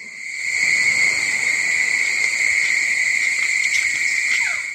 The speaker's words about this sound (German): Klingt wie ein Schwarm Killergrillen.